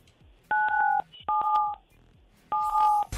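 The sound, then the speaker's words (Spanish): Three telephone keypad tones sound in sequence as the digits 977 are dialed, each a steady dual-pitched beep lasting about half a second, separated by short pauses, with faint background noise between them. “Dígita 977.”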